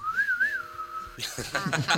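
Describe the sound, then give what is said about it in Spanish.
A person whistles a short western-film melody, a clear tone that swoops up and down for about a second, then breaks off into laughter and overlapping voices. “Y, y uno escucha eh, esos silbiditos y ese ritmo y esa cadencia musical que va, y es el cine del oeste, ¿no?”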